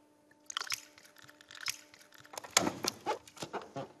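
A bit of water is filled into a balloon, with irregular squishy, gurgling bursts and rubbery crackles that grow busier and louder in the second half. No one speaks.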